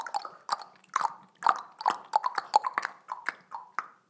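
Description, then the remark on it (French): Children puff out their cheeks and tap their fingers on them, making a quick, irregular run of hollow, wet pops that imitate falling raindrops. There is no talking. “Quand vous faites ça, là, sur les joues, on dirait vraiment de la pluie.”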